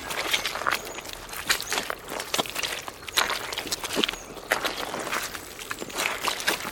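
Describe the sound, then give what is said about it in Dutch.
Footsteps squelch across soft peat moss floating on water that may be a few meters deep beneath, in an irregular rhythm, each step a wet, spongy crunch with bursts of crackling and rustling, steady and moderately loud with no voices. “Waar u nu loopt is veenmos. Het drijft op het water.”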